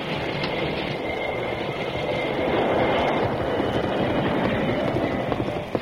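A heavy steam train grinds along loudly and steadily, with a thin metallic squeal running over the rumble as it brakes quickly to a halt because the tracks ahead have been tampered with. No voices are heard.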